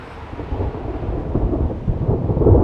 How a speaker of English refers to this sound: Uh-oh. What's with all the big dark angry clouds? Ah, oh, it's a terrible storm.